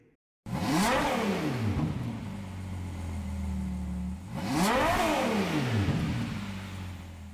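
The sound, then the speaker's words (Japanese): The 6.5-litre naturally aspirated V12 engine of a 2021 Ferrari 812 GTS sports car revs twice, loud, each rev sweeping up sharply and falling back to a deep steady idle rumble in between. No one speaks. “2021年式フェラーリ 812GTS 6.5リッター V12 型自然吸気エンジンのサウンドでした”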